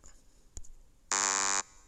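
A single harsh, flat buzz lasting about half a second, loud and steady with a dense stack of harmonics, like a quiz-show wrong-answer buzzer, preceded by a faint click; a sound effect being tried out.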